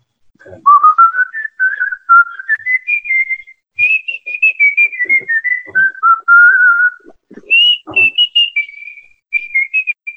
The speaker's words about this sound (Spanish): No, no mira, me quedo con tu chiflido por donde veas, así.